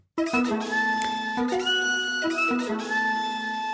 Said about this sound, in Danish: Breaking Smot jingle, ja.